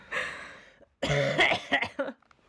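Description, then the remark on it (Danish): A person coughs: one harsh cough, a brief pause, then a longer rough burst of several hacking coughs that trail off. No talking. “jeg skal lige hoste.”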